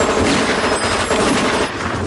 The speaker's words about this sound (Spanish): Los disparos dan en el coche de Pazos. El Volvo escapa.